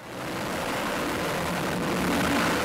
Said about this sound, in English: This is American and British airstrikes on Houthi targets in Yemen.